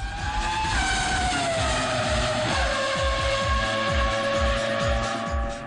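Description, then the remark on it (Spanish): Racing engines whine and rev at the Autódromo de Tocancipá racetrack, their pitch sliding as cars pass, with a steady loud roar and rhythmic low thumps throughout; no one speaks. “Por el momento, con el sonido al fondo del autódromo de Tocancipá, los invitamos a que sigan con la programación de Autos aquí en Blue Radio.”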